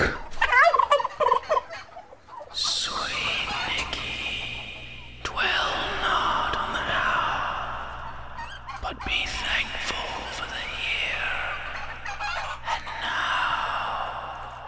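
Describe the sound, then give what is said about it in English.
Several turkeys gobble loudly and repeatedly, their warbling calls overlapping in bursts with brief pauses, over a steady low background hum. “I've got most of my limbs, and I'm surrounded by surprisingly bodacious turkeys.”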